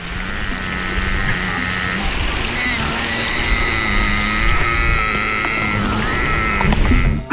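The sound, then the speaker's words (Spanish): A huemul deer gives a long, drawn-out nasal bleat, nearly continuous for several seconds with slight shifts in pitch, fairly loud over a steady low background rumble. “en la época de celo, los machos eh, hacen algunas vocalizaciones cuando están, digamos, persiguiendo o siguiendo a la cortejo”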